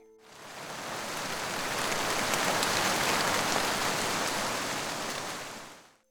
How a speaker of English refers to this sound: It began to rain hard.